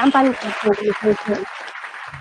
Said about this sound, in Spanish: Muy bien, muy bien. Ahí estaba ese aplauso para ese descuento para los que nos estén escuchando